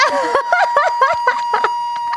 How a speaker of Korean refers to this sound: 정답. 자전거 경적 소리.